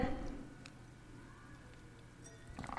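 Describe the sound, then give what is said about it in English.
Someone quietly sips J.M. Duane Rosé of Pinot Noir wine: a few soft, brief slurping clicks spaced apart over a low, steady background hum, with a slightly louder sip at the end. “That was me sipping.”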